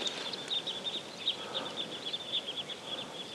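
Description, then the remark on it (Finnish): A flock of about twenty birds flies high overhead, calling continuously: a thin, high twittering of many overlapping chirps, fairly faint against a soft background hiss, with no voices. “Lensi se parvi, lensi tuolta korkealta yli. Niitä oli joku parikymmentä.”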